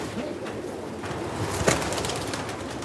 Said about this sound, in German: Die Taube ist eigentlich perfekt in Dubai zum Rennen.